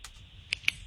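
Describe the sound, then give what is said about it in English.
Two crisp clicks a moment apart, like a ballpoint pen being clicked, over a faint low hum with no voices. “Is it a ballpoint pen?”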